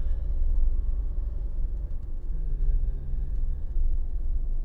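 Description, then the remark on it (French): Steady low rumble of passing cars on a road, a continuous deep road noise with faint engine drone and no distinct horns or voices. “euh, attendez, parce que là je croise des voitures, des chevaux et un chien.”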